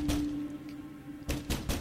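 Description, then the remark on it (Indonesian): A fist pounds on the door of a neighbouring bathroom: one heavy thud, a pause, then three quick bangs in a row, dull and resonant with no voices. “Setelah semuanya beres, aku keluar dan langsung menggedor pintu kamar mandi sebelah.”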